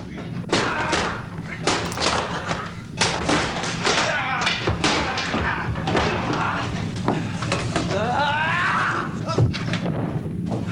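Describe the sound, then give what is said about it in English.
Repeated heavy thuds and slams land in quick, irregular succession as an actor kicks and beats another man, with voices and grunts mixed in. “I think this actor is really kicking the shit out of this guy.”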